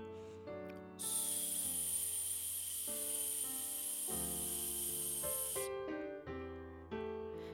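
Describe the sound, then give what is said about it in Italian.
A long, steady hissing "sss" breathed out slowly through the teeth in a breathing exercise, like saying "su" without the U, with a constant airflow lasting several seconds without a break, heard over soft piano music. “Successivamente espira lentamente mentendo un sibilo con la lettera S, come se dovessi pronunciare la parola su ma senza la U, in questo modo.”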